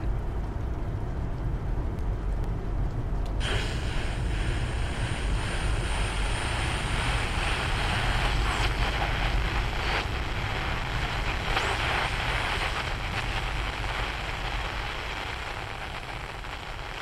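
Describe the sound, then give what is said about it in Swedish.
Steady, dense rain patters against a surface, loud, with a constant low rumble beneath like an engine or traffic. The hiss grows brighter after a few seconds and continues with no voices. “Du har en lång, mörk färd mot dag framför dig och regnet smattrar sönder din sikt.”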